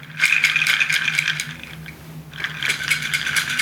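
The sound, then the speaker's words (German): Uncooked dried peas rattle inside a container in two bursts of quick, gritty shaking, with a brief quieter pause between them; fairly loud, with no voices. “Ähm, das sind Erbsen übrigens. Noch nicht gekocht.”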